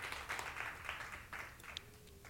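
An audience at a morning church service applauds together for the Lord, a steady wash of many hands clapping at once, fairly soft, with a few sharper claps standing out before it starts to thin.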